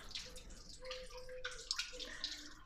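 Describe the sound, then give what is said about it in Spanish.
Water running steadily with a bright, splashing texture, punctuated by a few distinct drips and small gurgles, moderately loud, with no one speaking. “Me encanta el canto del agua.”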